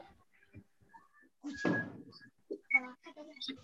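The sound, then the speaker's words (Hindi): A single muffled bang bursts out partway through, a firecracker going off outside, its rumble fading quickly while people talk before and after. “वाह वहां उनके बनावटी ठंडर चल रहे हैं नहीं”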